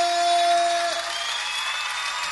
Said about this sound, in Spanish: Ahora sí todo el mundo. En vivo las palmas bien fuerte.